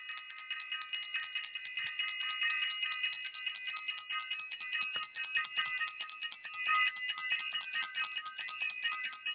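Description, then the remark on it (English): A bell rings continuously for about nine seconds, a bright, high metallic tone with a rapid, slightly uneven pulsing and no voices. “Let me ring the bell.”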